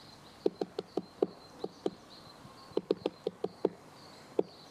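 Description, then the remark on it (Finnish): Great spotted woodpeckers give sharp, agitated, hostile calls that signal a coming fight, in two rapid bursts of about half a dozen notes each, over a faint steady outdoor hum with no talking. “Käpytikat oli, on oli siinä. vähän sitä tappelu, tappelua enteilevää, tuommoinen vihamielinen ääni.”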